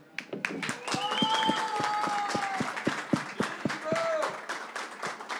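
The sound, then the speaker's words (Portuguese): A crowd applauds steadily with scattered sharp claps, while whistles and cheering voices rise above the noise for several seconds, cheering for a DJ. “gostaria de pedir muito barulho pro …”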